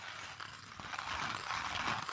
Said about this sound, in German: Julian hat gerade in der Handmühle äh, einen Kaffee gemahlen